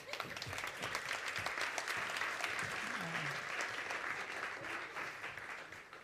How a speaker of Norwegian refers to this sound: Ja, vi gir dem en applaus.